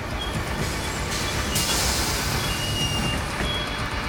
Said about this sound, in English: But then, headlights appear in the distance. A minute or so later, the 805 bus arrives and opens its doors.